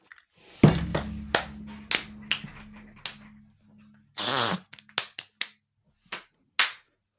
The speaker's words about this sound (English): See, normally it sounds like he gets up and leaves his room, but it sort of sounds like he's just clapping his hands. It well, it sounds like he's doing a Jim Carrey bit this time, doesn't it?